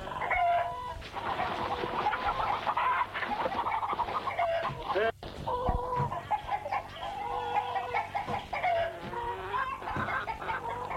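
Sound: hens clucking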